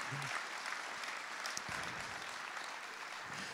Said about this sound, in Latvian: Amen! Mēs varētu tagad dot aplausu, tā Dievam, paldies tev! Mēs esam pateicīgi!